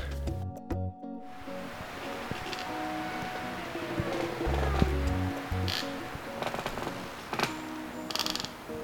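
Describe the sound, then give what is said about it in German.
Trees, some of them dead, creak and squeal in the wind in a forest: long, drawn-out groaning tones that bend slowly in pitch, with a few sharper squeaks over a steady windy rush and low rumble. “Ist das nicht unheimlich, wie die Bäume quietschen?”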